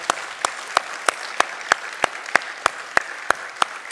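A crowd applauds steadily, a dense wash of clapping with one sharp, loud clapper standing out in an even rhythm throughout. Nobody speaks.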